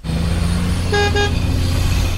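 Steady low rumble of road traffic with two short car horn honks in quick succession near the middle, standing out clearly above the engine drone.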